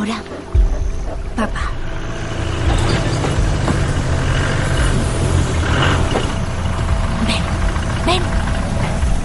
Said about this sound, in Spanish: detiene el coche al otro lado de la balsa.